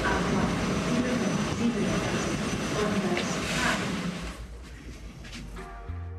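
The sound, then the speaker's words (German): A train section pulls into a station on a Monday morning with a loud, steady rumbling roar and hiss, which eases off toward the end as it slows, leaving a low hum. “Dann kommt mein Zugteil.”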